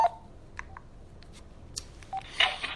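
Telephone dialing tones for a live call-in to the Sister Speak Show: a quick, uneven string of short electronic beeps of varying pitch, mixed with a few faint clicks, with no one talking.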